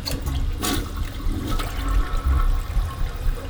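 A self-cleaning bathroom toilet flushes as the locked bathroom cleans itself, in a loud, sustained rush of swirling water, with broad low rumbling and hissing splashes throughout and no voices.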